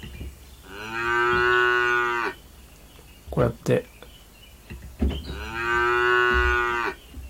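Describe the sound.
Two long, loud cow moos, each lasting about a second, separated by a short burst of a person speaking between them; the moo is played to welcome people who arrive.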